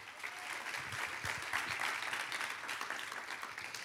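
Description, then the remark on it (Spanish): A large gathering claps steadily together, a dense wash of applause that holds at an even level for the whole stretch with no voices standing out, applauding Almighty God during a sermon. “Dale un aplauso a ese Dios todopoderoso.”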